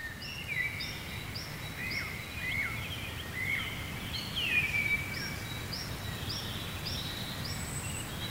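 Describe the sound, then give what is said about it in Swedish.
A wood warbler's song rings out at a distance, a series of high thin notes quickening into an accelerating trill, with other faint bird calls and soft rustling in the background. “Och sen tyckte jag att jag hörde en, en grönsångare, det är den som ska låta som om man skulle tappa en silverslant på, på bordet.”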